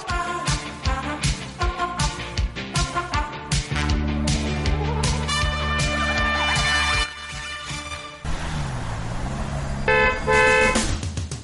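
Many car horns honk over and over in a dense, overlapping chorus of short and sustained blasts, loud, like gridlocked traffic, with engine rumble underneath and no talking.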